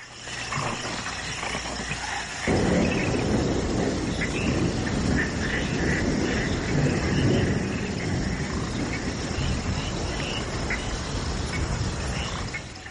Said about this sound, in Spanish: Finales de los 70, llueve en el corazón de la selva salvadoreña.